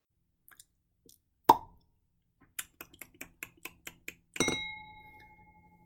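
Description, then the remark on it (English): A champagne cork pops with one sharp report, followed by a quick run of light clicks and then a bright glass clink that rings out and fades. “That, my friends, is the sound of a champagne cork popping because when I heard that the Lost and Found Bookshop was selected for the Library Reads list, I completely shut down work for the day.”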